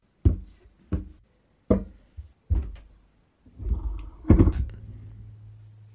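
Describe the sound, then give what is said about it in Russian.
Several hard, dull knocks on a desk beside a microphone ring out one by one at an uneven pace, followed by a longer burst of scraping and thudding that fades into a faint, steady low hum. “Ты стучал по столу, давайте.”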